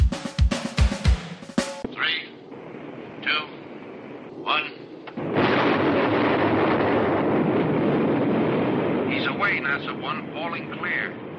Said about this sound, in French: en illustration sonore, je vous ai mis une petite séquence de largage tirée du film X-15 de 1961